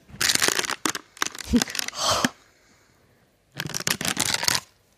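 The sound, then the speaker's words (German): Paper is rustled and crinkled in two crackly bursts, a longer stretch of busy crumpling, then a pause, then another rapid round of crinkling. “Papierraschelphobiker.”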